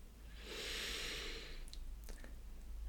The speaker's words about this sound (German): Gut dann schließ deine Augen und schick dir ein paar tiefe, ruhige Atemzüge.